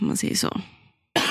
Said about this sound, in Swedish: Prosit. Nej, jag hostade. Jaha, hostade du? Host, host. Du tog i så liksom.